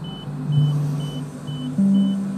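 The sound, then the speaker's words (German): A CT scanner running during a follow-up lung scan: a steady low mechanical hum that steps up in pitch partway through, with short high beeps repeating about every half second. No one speaks. “Das, äh, was ihr gerade gehört habt, das war vor ein paar Wochen bei einem Nachsorgetermin von meiner Lunge.”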